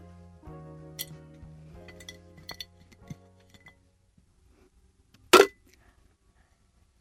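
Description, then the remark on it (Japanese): Small items clink into a glass jar, a series of light glassy taps and a sustained ringing tone, then after a quiet pause one bright, sharp clink near the end. “今日集めた好きをこちらのガラス瓶に入れたいと思います”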